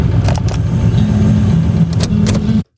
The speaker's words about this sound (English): you hear the car start, you hear the eight track going, on the cassette player, you hear the music start, you hear the key turn, the whole thing.